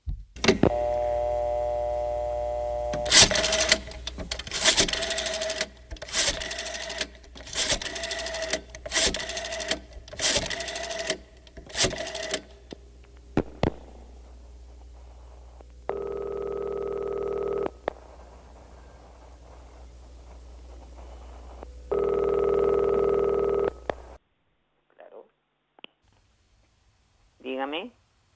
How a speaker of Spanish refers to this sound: Vamos a escuchar el teléfono, luego lo descuelga.